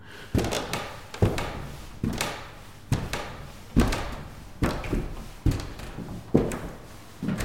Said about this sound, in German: Post rausholen. Den halb abgelösten Stopp Werbung Kleber am Briefkasten festdrücken.